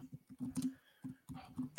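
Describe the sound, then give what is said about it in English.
Short, uneven runs of computer keyboard typing clatter, the key clicks coming in quick bursts separated by brief pauses over a low background hum. “Are you typing yeah. it right now? Yeah, I am.”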